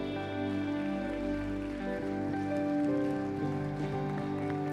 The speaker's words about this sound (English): Come on and give Jesus a hand clap of praise in the house today.